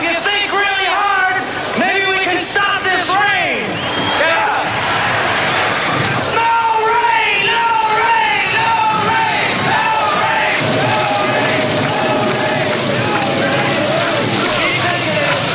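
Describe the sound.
A large festival crowd of about 400,000 people, in the rain, chants and yells together against the rain ("fora a chuva") in a loud, sustained roar, many voices rising and falling in rhythmic, repeated shouts for the whole stretch.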